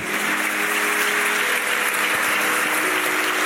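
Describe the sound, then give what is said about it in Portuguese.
An audience applauds the people standing who have read the whole Bible this year, in a steady, dense wash of clapping that holds at an even level throughout, with a faint sustained tone humming underneath and no voices standing out. “Pode aplaudir.”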